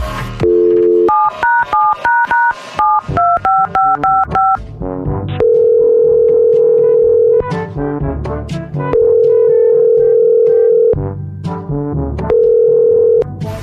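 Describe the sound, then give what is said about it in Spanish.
A quick run of touch-tone dialing beeps as a phone call is placed, then a steady telephone ringback tone sounding in long repeated bursts with short pauses between them, clear with no talking. “Vamos a marcarle.”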